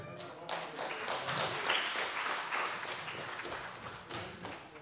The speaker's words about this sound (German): Wow, super, Beifall.